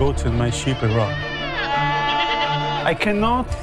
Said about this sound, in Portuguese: Pense, não sei nada sobre a Bíblia, não sei nada sobre os pergaminhos e estou aqui com as minhas cabras e ovelhas.